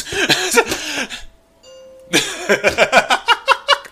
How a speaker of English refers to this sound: And my doorbell just rang. See another package delivered. Thank you, UPS.